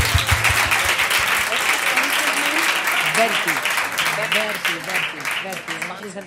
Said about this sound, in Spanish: Oye, qué bien, ¿eh? Un aplauso para vosotros, venga.